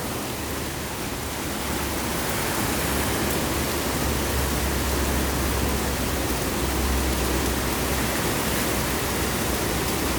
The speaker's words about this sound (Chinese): 因为我这里有很多屋屋檐呢，可是你可以感到那个雨啊，蛮凶猛的，然后滴滴答答的声音也比较大声。那其实它还有风的声音在里面，因为这是一个台风，但它没有登陆